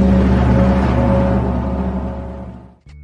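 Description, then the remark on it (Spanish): A gong struck to open a Spanish-language digital program rings out loudly with a dense, shimmering wash of overtones and a deep hum, slowly fading over a few seconds before cutting off abruptly. No one speaks. “Al toque de gong, conéctese a las claves del éxito”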